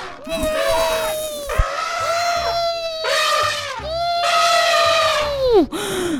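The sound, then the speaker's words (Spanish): Several voices imitate an elephant's trumpeting together: four loud, drawn-out, high wailing blasts in quick succession, each rising and then dropping off at the end. “Bueno, barritar es el sonido de los elefantes.”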